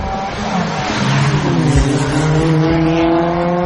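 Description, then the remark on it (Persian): Loud, high-revving engines of several cars fitted with high-speed engines, racing each other in a street race, roar continuously, their pitch climbing and sliding as the cars accelerate at speed, with a dense mechanical drone throughout. “این صدا مربوط به ویدیویی از یک کورس خیابانیه در این کورس چند ماشین پ... که موتور پرسرعت روی اونها نصب شده با هم رقابت میکنن در واقع این نوعی ویدیوی تبلیغاتی برای تغییر موتور پرده هاچپک به نوع پرسرعت”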